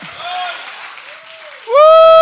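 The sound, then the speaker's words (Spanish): An audience claps for the Lord steadily in a dense, continuous patter, then a loud sustained voice or tone with strong harmonics rises over the applause near the end. “Dale palmas al Señor, a su nombre, a su nombre.”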